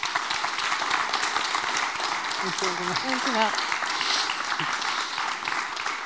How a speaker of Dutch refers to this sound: mag ik nog één keer een eh, applaus voor onze spreker?